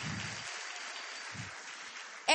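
Steady applause from a crowd, a dense wash of many hands clapping at a constant level for a couple of seconds, ending in a brief louder burst.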